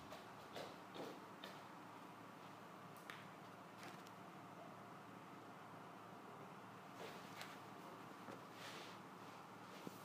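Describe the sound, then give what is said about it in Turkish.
A connection drop-out leaves near silence: a faint, steady hiss broken only by a few soft scattered clicks, with no voices for about ten seconds. “Bir düştüm geri geldim.”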